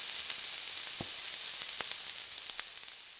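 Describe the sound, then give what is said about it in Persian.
Meat sizzles steadily as it is browned in a pan, one side fried golden and then turned over to fry the other side: a bright hiss with scattered sharp pops and crackles throughout and a louder spatter near the end. No one speaks. “خب الان یه سمت گوشتم سرخ شد برش میگردونم سمت دیگهش سرخ شه”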